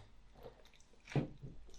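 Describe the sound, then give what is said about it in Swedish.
Soft, wet chewing of a banana, a few squishy mouth sounds with one louder bite or smack in the middle, no talking. “Du ska tugga färdigt. Man får inte äta i radio.”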